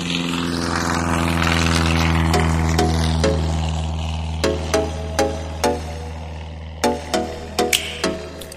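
A seaplane's propeller engine drones loudly and steadily during a landing approach in the Maldives, with a run of sharp knocks and rattles breaking in over the second half; no one speaks.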